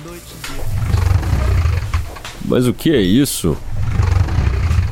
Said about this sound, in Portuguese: Era uma arrastão de móveis infernal.